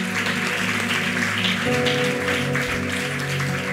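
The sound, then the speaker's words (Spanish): A crowd claps steadily and loudly for several seconds, the dense patter of many hands blending with sustained music playing underneath. “Un aplauso a ella que está por ahí.”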